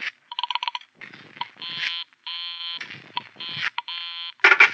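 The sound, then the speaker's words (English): A telephone busy signal heard after dialing a number on a phone: a quick flurry of rapid beeps, then buzzy electronic tones repeating in short bursts with brief gaps, ending in a harsh noisy burst, clear. “The number she was calling was busy”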